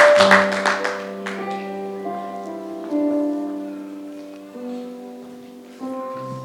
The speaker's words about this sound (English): Why don't you clap your hands for Jesus and you may be seated.